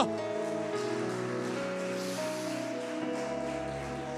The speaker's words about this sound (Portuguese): Aleluia! Aplauda ao Senhor Jesus Cristo bem alto.